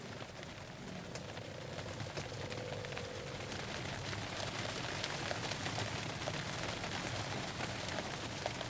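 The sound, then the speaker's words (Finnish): Steady early-morning rain patters down on Jussarö island at the mouth of the Gulf of Finland in a dense, even hiss with countless small drops ticking on a surface, continuous for the whole stretch with no voices. “Aamuyöllä sade herätti miehistön pilviseen päivään.”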